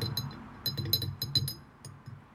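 A spoon stirs sugar into a drink, tapping the cup in a quick run of about ten bright, ringing clinks that slow and fade toward the end, over a low steady rumble.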